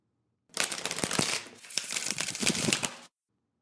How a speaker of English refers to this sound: fold the cards from the back over the top and let the cards fall over each other to mix them up